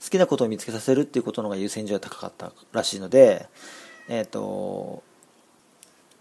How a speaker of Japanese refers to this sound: 今猫の声が聞こえましたね今部屋に入ってきました